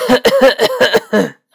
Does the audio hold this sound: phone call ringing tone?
no